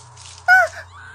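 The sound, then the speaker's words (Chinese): A woman's frightened scream, a single sharp, high-pitched cry lasting only a fraction of a second, loud against a steady low hum, with no talking. “李娇惊叫着，脸色煞白”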